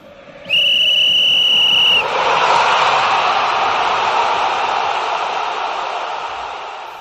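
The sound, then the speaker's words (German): A single long, shrill referee's whistle blast for a penalty kick, lasting about a second and a half, followed by a loud, sustained roar of a stadium crowd that slowly fades. “das, was du gerade gehört hast, das war der Pfiff zum Elfmeter.”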